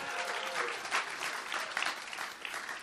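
A crowd in Amsterdam claps together to welcome a family, in steady, dense applause, a continuous patter of many hands at moderate volume with no voices standing out.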